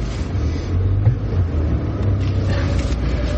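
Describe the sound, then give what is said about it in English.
A car engine rumbles steadily, a low, continuous drone with slight swells as the car slowly backs out, with no voices over it. “Hold on, gotta back out here. It's pretty precarious.”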